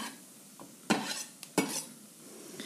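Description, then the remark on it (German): Kohlrabi pieces, some already nicely browned and still firm but softening, sizzle softly in a pan while being stirred, with two sharp scraping clatters of a utensil against the pan and a few lighter clinks, no voices. “Jetzt sind ein paar schon richtig schön angebrutzelt und ihr merkt, der hat noch immer schön Konsistenz, hält zusammen, wird aber weicher.”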